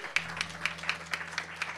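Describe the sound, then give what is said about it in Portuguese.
An audience at an evening church worship service claps for the Lord Jesus in a steady, even rhythm, roughly four claps per second, fairly quiet, over a low continuous hum, with no talking. “Dê uma salva de palmas ao Senhor Jesus.”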